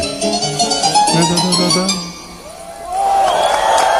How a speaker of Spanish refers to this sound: La gente aplaude porque se cree que así termina la pieza.